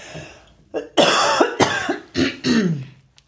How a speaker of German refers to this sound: ich habe das immer wieder, dass ich von Nüssen danach husten muss.